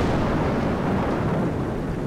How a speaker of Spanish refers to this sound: El barrio sigue oscuras, la casa sigue oscuras, solo el rumor de la lluvia y la luz de un relámpago que cada tanto dibuja siluetas en el living.